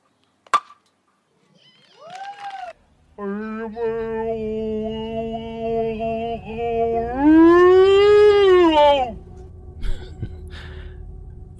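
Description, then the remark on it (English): A contestant in a Sasquatch calling contest lets out a long, loud howling call imitating a Sasquatch, a sustained harmonic wail that holds steady, then rises and swells in pitch before breaking off. A short rising whoop comes first. “And we're going to have the Sasquatch calling contest, and this is how it's judged on what I heard.”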